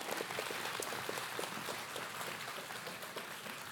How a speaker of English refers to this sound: If you guys would give her a round of applause. She's going to speak to you guys.